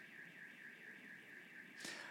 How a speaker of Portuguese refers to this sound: É o alarme da. Eu acho que é o alarme da igreja. Da 11 horas ela ele liga automaticamente, está tudo certo.